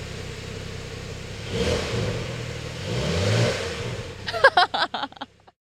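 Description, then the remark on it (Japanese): A Porsche sports car engine revs up in a low, throaty swell as the accelerator is pressed, builds again, then gives way to a short burst of rattling, clattering knocks as the sound cuts off. “ポルシェに乗ってエンジン音を体験”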